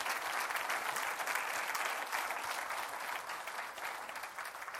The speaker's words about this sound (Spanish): ¿Cuántos dicen gloria a Dios? Dele otro aplauso a Cristo.